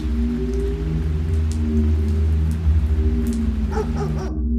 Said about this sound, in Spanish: El día siguiente llegó y el hombre despertó a causa de los ladridos de sus perros.